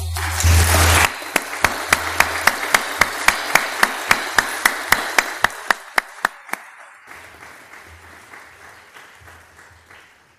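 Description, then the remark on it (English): An audience breaks into a short burst of applause welcoming a guest preacher, settling into steady, evenly spaced rhythmic clapping, fading gradually over several seconds before leaving quiet murmuring. “And uh, I suggest we welcome them with a warm round of applause.”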